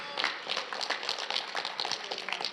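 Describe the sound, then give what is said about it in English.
A group of middle school and high school students from a student ministry clapping and cheering on the preacher at Edge Church, a dense, steady patter of many hands with bright bursts of shouts and whoops running throughout. “And uh, we're really excited today because we have a whole group of students from our student ministry that are coming out to cheer on the preacher today.”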